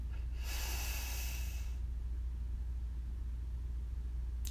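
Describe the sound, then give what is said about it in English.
A quick, deep breath drawn in sharply through the nose while all the body's muscles, including the face, are squeezed tight; the breath is then held through several seconds of near silence over a low, steady background hum. “So breathe in tight, tight, tight, tight, tight.”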